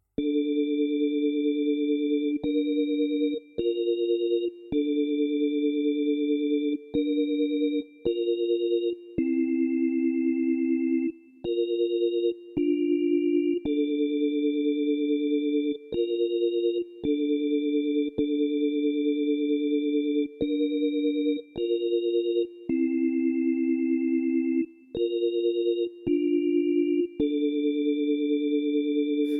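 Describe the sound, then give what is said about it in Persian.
A keyboard set to an organ sound plays steady, sustained chords that shift every second or two in a repeating pattern, each note held evenly without fading, with no voices. “لاین کیبورد در حالت اورگ”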